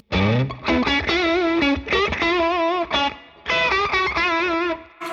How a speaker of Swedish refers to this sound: Så, det där är Tube Screamen i alla fall från Vemram.